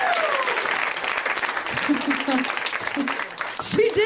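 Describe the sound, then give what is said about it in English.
A comedy show audience applauds comedian Alice Wetterlund steadily for about four seconds, a dense clatter of many hands clapping at once, with a few faint voices and whoops mixed in underneath. “Guys, let's hear it for Alice Wetterlund one more time.”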